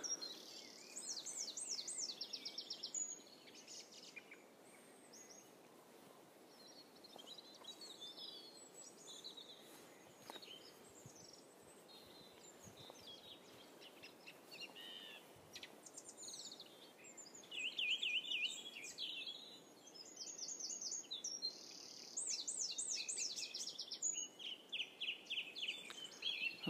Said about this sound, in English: the first wren I've heard. That's quite a distinctive call, that one. That's one of the first ones that I was able to identify. It's a very, very long call